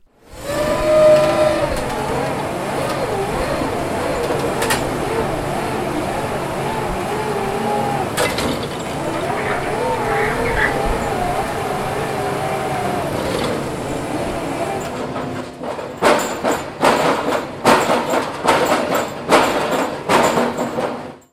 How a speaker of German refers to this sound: So klingt es, wenn ein riesiges Drehbohrgerät ein Loch von 70 Zentimeter Durchmesser, etwa 10 Meter tief in die Erde des Funkerberges bohrt. 15 dieser Löcher sind notwendig, um die entstehende Baugrube vor dem Senderhaus 1 abzusichern.